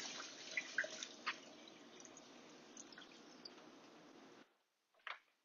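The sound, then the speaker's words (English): A steady stream of water pours and drains off chicken that was soaking in water, vinegar and lemon juice, for several seconds with scattered drips and splashes, then cuts off, followed by one brief splash after a short silence. “Just gonna go ahead and drain that excess water out.”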